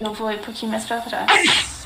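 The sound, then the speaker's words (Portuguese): A person talks briefly, then a single sharp, loud sneeze bursts out near the end, a quick noisy explosion that falls off fast. “Saúde. Ah, dois.”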